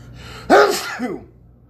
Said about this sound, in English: pardon me, that's not social media. that's a social sneeze.